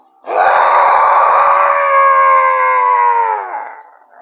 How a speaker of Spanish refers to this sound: fue a tomar la espada de Máximo para clavársela por última vez en el pecho al demonio, provocando que éste soltara un terrible rugido.